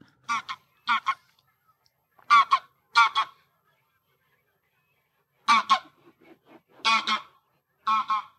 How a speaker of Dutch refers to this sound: Ah, mooi hoor, hem ook nog even overvliegen. Ja, dat is ook grappig. is eh, trouwens, een kenmerk van de grauwe gans, dat je zijn vleugelslag echt hoort.